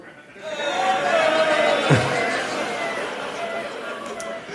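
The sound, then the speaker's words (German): A live audience's voices together imitate construction-site noise, including concrete mixers, a dense mix of rumbling, buzzing and whining tones with a brief low thud near the middle, steady and loud throughout. “die Geräusche, die wir brauchen vom Publikum, weil neben dem Haus ähm, ist eine Baustelle, deswegen brauchen wir Baustellengeräusche von euch.”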